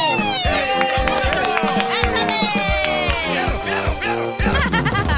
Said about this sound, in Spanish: A ver, el aplauso.